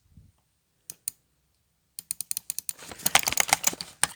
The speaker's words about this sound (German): Mausmittel, Mausmittel, Mausmittel, klick. Rechtsklick.